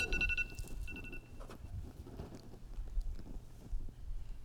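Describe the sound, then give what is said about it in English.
A phone alarm set for six minutes rings with bright electronic tones for about a second, marking the end of the six minutes, then cuts off, leaving a low rumbling background noise with no speech. “Before I told my phone, set an alarm, there was a six minute block we lived through the six minutes, and now we're looking back on the six minutes.”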